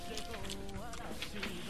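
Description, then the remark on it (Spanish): A person imitates a cat's meow with a short, wavering voiced cry that rises and falls in pitch, ending in a sudden loud burst of noise. “A ver nuevamente cómo es el gato.”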